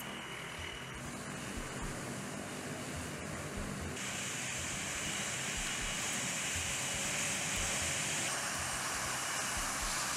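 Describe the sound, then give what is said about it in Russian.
A steady, loud roar of heavy aircraft engines from two Tu-95MS strategic missile-carrying bombers on a planned flight over neutral waters of the Bering Sea, passing overhead, with the rushing noise growing brighter and more intense partway through. No voices are heard. “два стратегических ракетоносца Ту-95МС выполнили плановый полет в воздушном пространстве над нейтральными водами акватории Берингового моря.”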